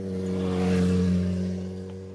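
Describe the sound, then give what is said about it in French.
A motorcycle engine drones loudly, its revving swelling to a peak and then easing off as it passes, with no voices over it. “Lui en moto, ça va plus vite, tu vois.”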